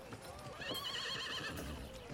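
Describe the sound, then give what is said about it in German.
A horse lets out a shrill, quavering whinny lasting about a second, with hooves clip-clopping before and after it, moderately loud. “Ähm, wir gehen, ja, wir, gehen zum, wir, wir gehen zum Wirtshaus und äh, wir satteln das Pferd.”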